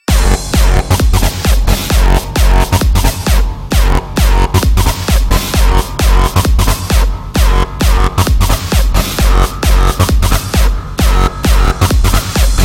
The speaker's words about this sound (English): Now, we need some fat distortion. More distortion. 100 more distortion. Time for another fat ass drop.